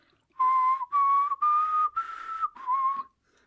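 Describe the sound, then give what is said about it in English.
A person whistles a short melody of about five sustained notes, clear, with brief gaps between them and the pitch shifting slightly from note to note, imitating the melody the character Tiva whistles to make crystals shatter. “And the Draags know what to do because Tiva walks up and she whistles that melody.”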